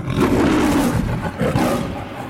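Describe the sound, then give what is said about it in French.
A lion roars loudly, a deep, rumbling bellow sustained for about two seconds with a brief swell partway through, with no talking over it. “Il ouvrit grand la gueule et poussa un rugissement”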